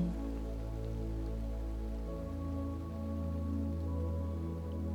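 Steady, gentle rain hisses continuously at a soft, even level, with a low sustained tonal hum running beneath it and no voices.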